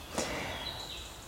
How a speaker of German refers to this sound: du hörst wahrscheinlich schon im Hintergrund die Vögel zwitschern und vielleicht auch den Bach plätschern. Ähm, hier und da fallen einige Regentropfen auf die Blätter um mich herum. Also man hört tatsächlich Waldgeräusche.